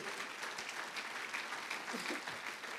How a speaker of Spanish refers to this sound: Apláudale fuerte al Señor. Aleluya.